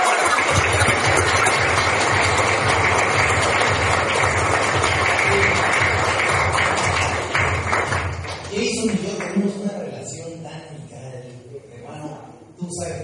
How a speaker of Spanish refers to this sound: Así que vamos a darle a todo Un aplauso.